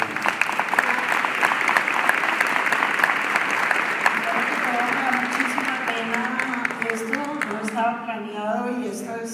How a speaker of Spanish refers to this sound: Un aplauso a usted, doctora.